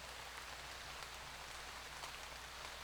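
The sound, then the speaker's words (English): Steady rain falls continuously, a soft, even hiss of drops with faint patters scattered through it, fairly quiet and with no voices. “The day I felt abandoned and alone in the rain, when something else came to find me.”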